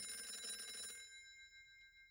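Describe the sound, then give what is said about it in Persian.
A telephone bell rings loudly in a rapid metallic trill for about a second, then stops and leaves a fading shimmer of tones. No one speaks. “رسیده بودم به قسمت عبی عزیزم که تلفن زنگ زد”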